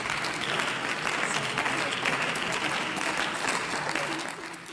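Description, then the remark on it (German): Sustained applause from an audience after a female member of parliament's speech, a dense, even wash of clapping that holds steady at a fairly loud level for several seconds before easing slightly at the end. “Ja, meine Damen und Herren, dieser verdiente, tosende Applaus zeigt nicht nur, welch grandiose Arbeit unsere Parlamentarier leisten, sondern bestätigt die Aussagen der Frau Abgeordneten auch inhaltlich.”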